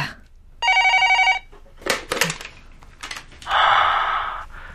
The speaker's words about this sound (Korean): 며칠 후 다시 남자에게서 전화가 왔다.